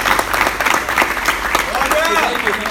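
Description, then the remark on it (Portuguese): A church audience breaks into steady, dense applause given for the Lord in the name of Jesus, with voices calling out over the clapping near the end. “Em nome de Jesus, dê uma salva de palmas aí pro Senhor.”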